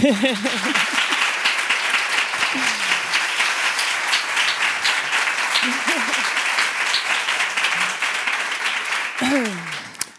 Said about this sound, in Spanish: Es la artista que más veces ha venido al hombre que se enamoró de la luna. Y es por eso que recibes también este pedazo de aplauso.